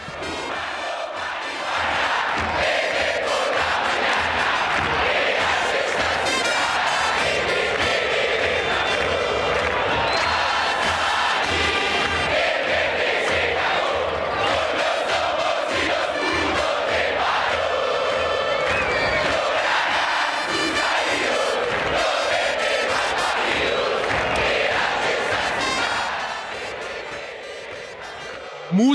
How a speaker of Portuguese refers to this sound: música cantada pela Resistência Norte, a torcida do Independente Medellín, que faz uma, uma, adaptação de uma música que é de 1972